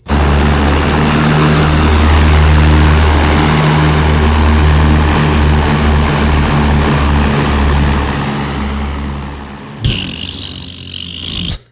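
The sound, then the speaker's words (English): A loud, steady propeller airplane engine drones with a deep throbbing hum and rushing noise, holding for about ten seconds before cutting abruptly to a brief, different hiss. “Can I play the airplane sound now?”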